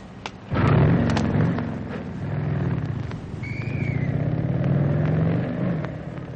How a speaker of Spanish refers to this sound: Qué bien que me prestaron esta motoneta para llevarlos.